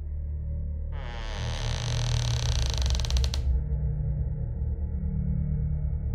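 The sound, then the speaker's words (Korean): A single long creak as a bathroom door is carefully opened, a drawn-out, slightly rattling squeal lasting a couple of seconds, over a steady low background hum with no voices. “조심스레 화장실 문을 열고 안을 들여다본 후배 녀석은 잠시간 얼어붙은 듯 있더니 조용히 문을 닫았다.”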